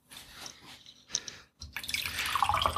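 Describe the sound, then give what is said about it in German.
Tea is poured into a cup: liquid trickles and drips, starting in short splashes and then becoming a steady stream with bright gurgling. No one speaks. “Oh, ich höre, der Obi so, ist wieder da. Tee eingießen gemütlich.”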